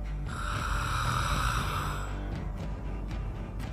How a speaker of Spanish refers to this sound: Y empezamos a escuchar el gruñido.